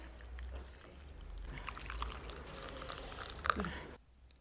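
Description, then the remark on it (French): Coffee is poured into a navy blue cup, a steady splashing stream that builds over a few seconds, then cuts off abruptly, leaving quiet room tone. “Je vous mets dans la tasse euh, bleu marine.”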